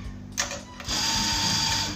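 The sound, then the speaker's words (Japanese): A short clatter, then an espresso grinder starts up with a steady, loud mechanical whir as it grinds beans straight into a portafilter held directly against it, filling its basket with fine espresso grounds, holding level to the end without any talking. “そのバスケットに今からエスプレス用に粉を豆をですね引いてそのバスケットにこう入れていくわけですねでその際にエスプレス用のグラインダーに直接ポルタフィルターをあてがって”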